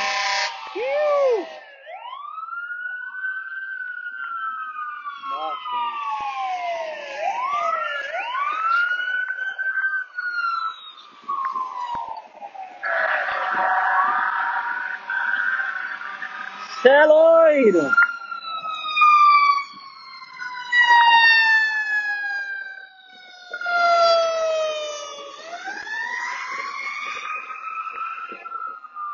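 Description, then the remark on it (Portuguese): The sirens of four fire trucks wail and overlap as the trucks pass along Sunset Boulevard, sweeping up and down in pitch, loud, with a man's voice briefly speaking beneath them. “Mano, aconteceu alguma coisa muito séria, porque tem quatro carros de bombeiros, carro, quatro caminhões do corpo de bombeiros.”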